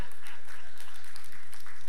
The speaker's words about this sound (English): Come on, all you ladies. Give me a hand clap of praise, right? Ladies, come on, help me out here.